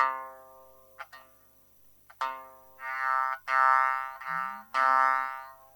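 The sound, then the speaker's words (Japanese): A shamisen is plucked about six times to demonstrate its sawari, the buzz removed and then added back, each note ringing with a bright, buzzing sawari resonance. The later notes sustain louder and longer, one dipping to a lower pitch, with no talking. “今、触りを消します。全く一緒なんですけど、で、触りもう一回つけます。”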